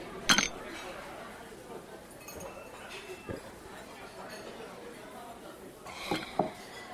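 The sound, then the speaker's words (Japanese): A sharp glassy clink rings out at the start of a toast celebrating a project's success, then softer clinks and tableware taps near the end, set against a murmuring background of chatter in a casual izakaya. “プロジェクト成功を祝して乾杯”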